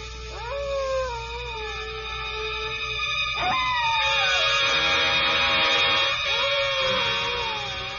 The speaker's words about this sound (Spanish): Para colmo empezaron a aullar los perros. Dicen que cuando un espíritu anda cerca huyan los perros, amigo.